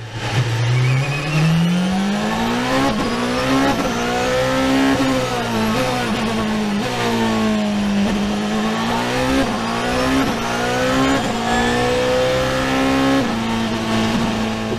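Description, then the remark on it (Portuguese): The 2-litre, 720-horsepower V4 engine of a Porsche 919 Hybrid race car roars continuously, with strange noise from its transmission and 440-horsepower electric motor; its pitch rises and falls in repeated sweeps as the driver accelerates and shifts, a loud, buzzy high-revving drone with no voices. “vocês ouviram é um V4 de 2 litros de 720 cavalos do Porsche 919 Hybrid Evil.”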